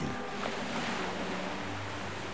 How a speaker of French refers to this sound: Bientôt la mer étale. Et cette musique, cette musique de vagues, aujourd'hui très tranquille.